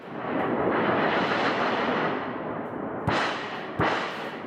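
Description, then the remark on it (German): A thunder sheet, a metal sheet about 1.5 m by 80 cm hung by two cords from a stand, is shaken, giving a loud, rolling metallic rumble that swells and fades, then two sharp, whip-like cracks near the end. No voices accompany it. “Und wenn man an diesem Blech rüttelt oder wackelt, dann entsteht ein ganz spezieller Klang und der erinnert einen sehr an den Donner.”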